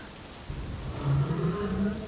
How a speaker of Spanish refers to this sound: Levantándose sobresaltada, el trueno le había hecho agitarse por el susto.